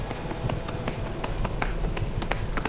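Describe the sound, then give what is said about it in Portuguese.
Horse hooves clop on a road, a deserted highway in northern Minas Gerais, Brazil, in a steady, uneven rhythm of sharp knocks, with a low background hum and no talking. “Nas rodovias desertas do norte de Minas Gerais, o som do cavalo pode ser mais comum que o de carros.”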